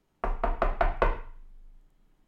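Five quick, firm knocks on a door in an even rhythm, loud, followed by a brief fading resonance and then quiet. No one speaks.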